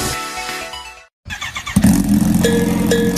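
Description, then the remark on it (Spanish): A motorcycle engine idles, cuts out briefly, then fires up again and revs loudly, its throaty roar rising and holding steady with no talking. “moto se merece el mejor cuidado con los beneficios más amplios.”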